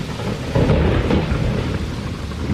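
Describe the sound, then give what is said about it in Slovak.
A summer thunderstorm with steady rain hissing throughout and a deep, rolling rumble of thunder that swells after the first half-second and lingers. No voices are present. “No a neodmysliteľne k letu a k horúčavám patria aj búrky.”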